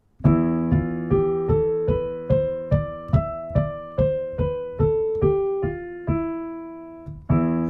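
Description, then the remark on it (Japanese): A piano plays the notes do re mi fa so la ti of the major scale starting from E (mi), climbing step by step and then descending in a steady, even rhythm, each note ringing clearly, with one final note after a pause. “じゃあこれでもあの使ってる音はドレミファソラシドだけなんですよ、うん、じゃあ例えばこれミーの音ミーの音です、ミーの音ミーの音から始めたらどうでしょう”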